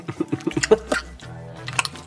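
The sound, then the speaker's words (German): Wet chewing sounds of a woman continuously chewing gum, with quick smacks and squishes in a steady rhythm, and a low hum underneath. “Ähm, ihr merkt auch, dass sie kaut wirklich durchgehend Kaugummi, sehr erotisch.”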